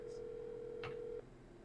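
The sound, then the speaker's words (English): A phone line ringing while calling the speaker's sister and waiting for her to pick up: a single steady electronic tone holds for about a second, then cuts off, leaving faint line hiss. No one speaks. “I'm gonna call her right now.”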